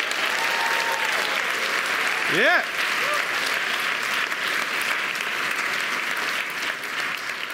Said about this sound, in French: Alors, est-ce qu'on peut leur faire une salutation? Est-ce qu'on peut les applaudir juste pour dire qu'on est avec eux?